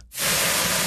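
Food sizzles in a hot pan, a loud, steady crackling hiss that starts abruptly after a split second of quiet and continues evenly, with no voices.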